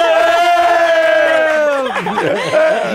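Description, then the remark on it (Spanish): A few voices hold a long, loud cheer together before it breaks into a burst of whoops and excited shouting, energetic throughout, doing 'la ola' to welcome guests Marco Antonio Rigil and Carlos Espejel to the show Pinky Promise in West Hollywood. “¡Un aplauso! ¡La hola, la ola, la ola!”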